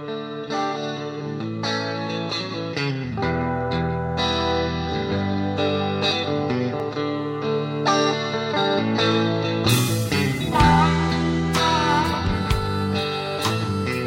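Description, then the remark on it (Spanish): Argentine rock (rock nacional) plays steadily in the background throughout, driven by electric guitars with heavy effects and some distortion over a solid bass line, fairly loud and continuous, with no one talking. “Qué lindo que se escuchara la reina de fondo y ese rock nacional que nos pone siempre nuestra querida Lía.”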